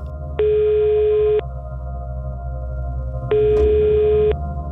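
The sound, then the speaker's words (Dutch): A telephone ringback tone on a call placed from Leeuwarden: two long, steady electronic beeps, each about a second, separated by a pause, heard clearly over a low background hum with no one speaking. “Dan maar een telefoontje.”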